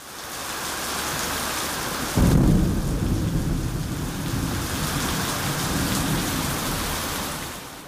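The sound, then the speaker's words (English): Heavy rain pours steadily during the rainy season while a deep, rumbling roll of thunder breaks in about two seconds in and slowly fades back into the constant downpour. “The idea for this special episode was actually born during the rainy season when thunderstorms, unlike I've ever experienced, hit us almost every day and sometimes left the entire place flooded.”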